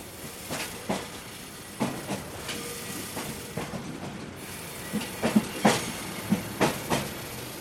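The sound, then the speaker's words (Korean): A small three-car yellow train starts moving and rolls along at a steady pace through a mountain village countryside with snow-covered fields, its wheels clacking rhythmically over rail joints in repeated clusters, with a constant hiss and rumble underneath and no one talking. “드디어 열차가 출발합니다.”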